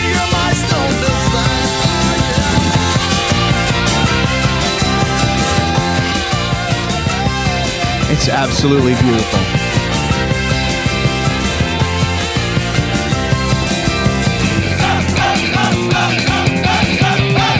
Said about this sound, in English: The shouting, the, the band's going crazy.